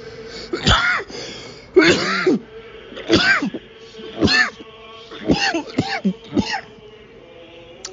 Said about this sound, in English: Sorry. I, sorry, I usually mute myself before I cough, but that one came on me pretty quick.